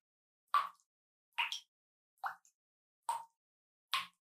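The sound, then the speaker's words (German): Water drips from a tap: five distinct, hollow plops spaced at a steady, unhurried rhythm, each clear with silence between them and no voices. “Das war ein Wasserhahn.”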